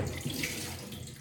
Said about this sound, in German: Jetzt kippe ich das Wasser weg, das ist den Rest.